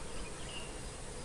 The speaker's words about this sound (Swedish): Och ja, det har blivit lite mygg som surrar runt här i våtmarkerna såklart och ansätter lite grann men det är vi ganska vana.